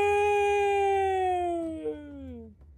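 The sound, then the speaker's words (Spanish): An elephant groans in one long, drawn-out moan that holds steady and then slides downward in pitch before fading out, a loud tonal wail with no talking over it. “Después de todos estos gruñidos y gemidos, ¿no estás listo para detenerte?”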